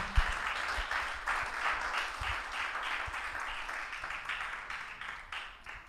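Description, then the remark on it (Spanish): A crowd applauds for Christ on the first Sunday of 2022, steadily for several seconds, a dense wash of many hands clapping at a fairly even level that slowly thins toward the end, with no voices over it. “Un aplauso a Cristo por esa preciosa verdad.”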